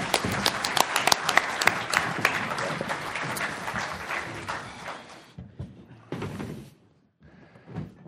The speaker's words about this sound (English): Let's give our panel members a round of applause. Good job.